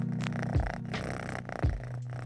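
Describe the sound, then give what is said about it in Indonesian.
A pet cat named Cim purrs steadily, a low rumbling drone with rhythmic swells roughly every second as it breathes in and out, with no talking over it. “Ya mudah-mudahan pada denger ya suara ngepurnya dia.”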